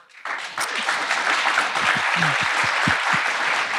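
A live audience breaks into steady applause for themselves, many hands clapping together in a dense, sustained wash that starts abruptly and stays loud throughout, with faint voices mixed in underneath.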